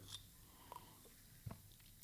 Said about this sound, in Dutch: Ehm, ik ik slurp, af en toe even een beetje koffie, als je het niet erg vindt.